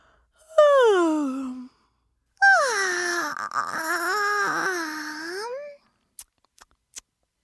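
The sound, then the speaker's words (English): Two loud voiced yawns from the cartoon brothers Fireball and Sparky: a short one falling in pitch, then a longer, drawn-out breathy yawn that wavers before trailing off, followed by a few faint clicks. “Sparky copied Fireball and started yawning.”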